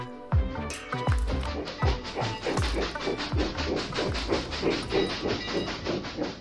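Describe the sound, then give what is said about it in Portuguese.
A steam locomotive chugs steadily as it arrives at a cement factory in the Perus district of São Paulo, Brazil, in 1976, its rhythmic exhaust puffs and hissing steam loud, with clanking metal and rumbling wheels underneath. No voices are heard. “Esse som que você está ouvindo é uma gravação original de uma Maria Fumaça chegando numa fábrica bem importante.”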